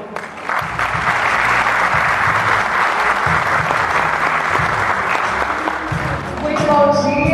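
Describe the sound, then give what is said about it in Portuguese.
A crowd applauds steadily for a researcher from Embrapa Soja who is director of Abrates, a dense wash of clapping that holds at an even loudness throughout, with a hint of a voice and some faint tonal sounds emerging near the end. “Bom, eu gostaria que vocês recebessem uma salva de palmas um pesquisador da Embrapa Soja e diretor da Abrates,”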